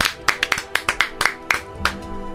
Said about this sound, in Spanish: Un aplauso para el Tuca.